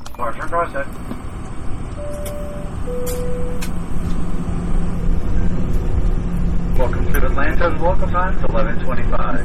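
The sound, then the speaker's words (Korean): Steady low drone of an airplane cabin on a flight of about 1 hour 40 minutes to Atlanta, Georgia, USA. People talk at the start and end, and a brief two-tone chime sounds early on for a flight attendant's announcement. “1시간 40분 정도 비행기를 타고 애틀란타에 도착했습니다.”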